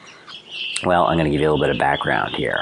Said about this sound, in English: Oh, and if you hear a lot of wildlife in the background, yeah, that would be the fact that I am in a technically a tropical rainforest area with lots of birds and lots of weird little animals.